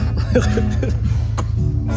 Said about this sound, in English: So you coughing? You choking